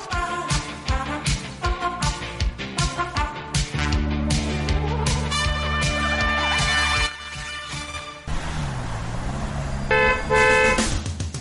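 Several car horns honk repeatedly in a traffic jam over a steady rumble of idling traffic, some short toots and some long blasts, loud, with no one speaking.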